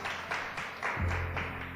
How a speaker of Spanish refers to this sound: ¿Por qué no le damos un aplauso a Dios por la vida de nuestra hermana que hoy nos visita? Nos encanta tener visitas.